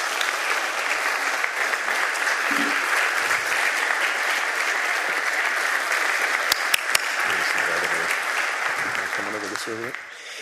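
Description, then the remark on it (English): Steady, loud applause from a crowd at the close of a service, greeting guests as they come out to lead a prayer, fills the whole stretch: a dense wash of many hands clapping with a few sharper claps and faint voices surfacing near the end. “I'm going to ask our guests out here for the prayer, and if we could give them another round of applause as they come out and join us.”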